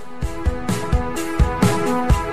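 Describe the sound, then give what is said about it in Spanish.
A short burst of indie rock band music plays loudly, with a steady driving kick drum, bright crashing cymbals and sustained electric guitar chords; no one speaks over it. “Hoy son una banda que suena así.”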